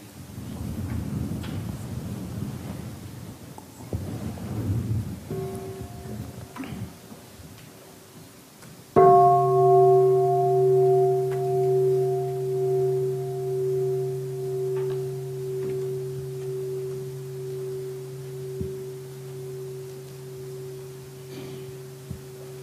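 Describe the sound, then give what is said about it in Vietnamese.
A meditation bell is invited: a soft first touch, then one full strike that blooms into a pure, humming tone with shimmering overtones, sustaining and slowly fading for over ten seconds. “muốn thịnh chuông thì thịnh đi”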